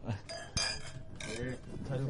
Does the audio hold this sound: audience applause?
no